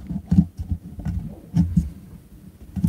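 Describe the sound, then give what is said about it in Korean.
Muffled thumps and rustling bumps of an expensive microphone, set in a horizontal position, being handled and adjusted during a live stream, low and irregular, with several heavier knocks scattered through a few seconds and no talking. “마이크 좀 조절하고”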